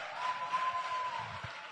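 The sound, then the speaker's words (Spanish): A church crowd claps for its women's ministry, steadily throughout, forming a dense, even wash of many overlapping hand claps at a moderate, fairly soft level, with no voices standing out. “Así que démosle un aplauso a nuestro ministerio, mujeres.”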